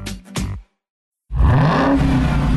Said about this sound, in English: What do you hear? Most people just hear an engine. We hear a 6.2 liter Hemi V8 with a supercharger that accelerates so fast, it'll suck the air out of your lungs and knock you back in your seat like you're an astronaut in a rocket ship